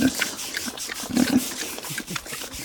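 Short, low grunts from a pig, a few scattered snorts that cluster near the middle, set against a steady, noisy background with no one speaking.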